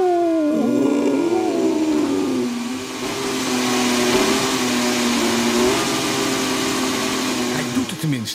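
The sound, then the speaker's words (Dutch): A Mercedes-Benz W14 Formula 1 car's engine fires up, its pitch climbing quickly before settling into a loud, steady, buzzing idle, with a short blip of revs near the end. “Ja, dat is de fire-up.”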